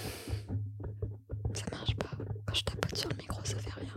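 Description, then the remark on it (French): Breathy whispering into a microphone, a run of soft hissy syllables and mouth sounds over a low steady hum, delivered in a deliberate ASMR style. “Waouh. ASMR.”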